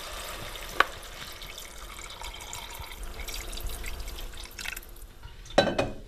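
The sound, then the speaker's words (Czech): Cold water pours steadily into a pot of sautéed onion, diced pumpkin and potatoes with a continuous splashing rush, broken by a sharp clink early on and another bright splash near the end. “No a pak se to tepřiv zaleje.”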